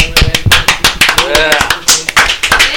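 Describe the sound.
A burst of applause to open an interview with Almalafa: many quick, sharp handclaps overlapping in an irregular rhythm for about three seconds, fairly loud, with a brief voice-like tone rising through the middle.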